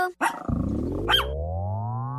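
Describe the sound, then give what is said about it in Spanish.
A dog gives a short sharp bark, then a loud growl that rises steadily in pitch for about two seconds, with a brief high whine partway through, opening El show del perro Chato Café on the radio station Like FM 98.3 in Cuauhtémoc, Chihuahua. “Ven, perrito, perrito.”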